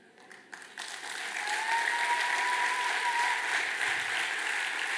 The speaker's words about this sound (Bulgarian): Някой пляска, защото чува как Исус го вика в момента.